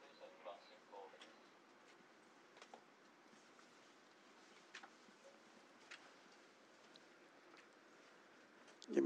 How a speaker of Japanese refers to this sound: まあその意味でこの新幹線がゆっくり走って、えー、駅に着く時に初めてそのコトンコトンコトンコトンという音が聞こえていく。でそれで昔のなんかこうえー、電車の風景を思い出すというようなねことがちょっと、まあ、今ちょっと聞こえてきたんですね。